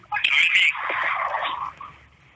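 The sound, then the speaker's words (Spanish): The caller's own voice comes back thin and tinny through a phone line during a live broadcast call, echoing for about two seconds with a brief, slightly garbled quality before fading out. “No, me escucho yo.”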